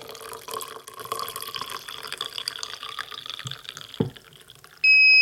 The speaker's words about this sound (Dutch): De vloeistofindicator is een plastic kastje met twee eh, staafjes eraan. En dat kastje hang je dus met die staafjes in een kopje. En als je dat dan vol schenkt met water, dat kopje, dan hoor je op een gegeven moment een pieptoon.